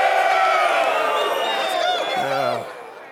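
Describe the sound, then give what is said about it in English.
A large crowd, asked to make noise like San Francisco 49ers fans, cheers and shouts loudly in a dense, sustained roar of overlapping voices and whoops, tapering off slightly toward the end. “I need you to make some noise like you're a San Francisco 49er fan. Make some noise.”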